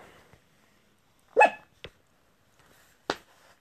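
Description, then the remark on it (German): A dog barks in short, separate bursts: one loud, sharp bark, a quicker softer one right after, then another bark a moment later, with quiet in between. “Hörst du jetzt auf, Blackie? Wir machen keinen Buff-Wuff.”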